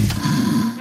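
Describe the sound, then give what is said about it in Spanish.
A single low, rattling snore from a person sleeping during a siesta, drawn out for under a second with a steady, buzzing rumble and no talking. “Y cuando su dueño sabe que la tiene asegurada con línea directa duerme tranquilo y suena así.”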